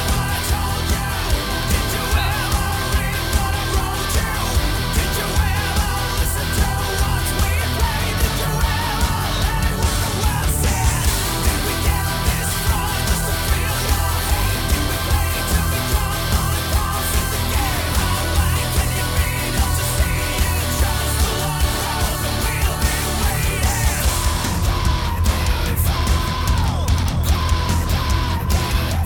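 Loud, dense symphonic heavy metal plays continuously, with driving drums, thick distorted guitars and orchestral layers, and a powerful vocal line soaring over the full, constant wall of sound.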